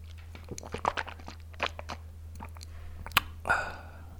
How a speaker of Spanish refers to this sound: Pues eh, bueno, voy a tomar un poquito de agua a ver cómo suena.